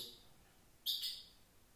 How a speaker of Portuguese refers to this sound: mas para já espero que estejam a gostar de ouvir a Rita a piar, ou como é que se chama, aquilo que os pássaros fazem.